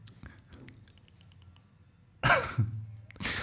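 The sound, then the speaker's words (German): A single sharp, dry cough, made deliberately to mark a bad joke, bursts out after a quiet stretch, followed by a brief throaty rumble and another short burst of breath. “Und, ihr, müsst, äh, ihr müsst, wenn ihr dieses, äh, dieses Husten machen wollt, um einen schlechten Gag zu verdeutlichen, müsst es möglichst trocken sein.”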